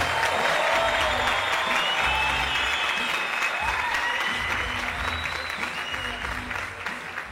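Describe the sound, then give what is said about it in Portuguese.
A stand-up comedy crowd applauds loudly and steadily as comedian Maurício Meirelles is called to the stage, a dense wash of clapping with scattered cheers and whoops rising above it, easing only slightly toward the end. “Eu quero vocês uma salva de palmas agora para ele, Maurício Meirelles, vem pra cá.”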